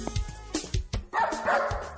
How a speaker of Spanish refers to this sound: ¡Cállate! He dicho que no ladres más. Pero si el que está ladrando eres tú.